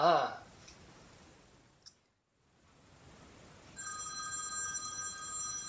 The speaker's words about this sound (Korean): 어 잠깐 전화 좀 받고.